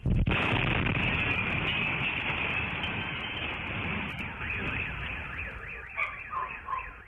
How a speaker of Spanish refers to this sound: luego de una explosión registrada este sábado en una vecindad en la esquina de Tercera Cerrada del Lago Amer, Colonia Pensil Norte, en la alcaldía Miguel Hidalgo, donde vivían alrededor de 28 familias. Así escuchó esta explosión.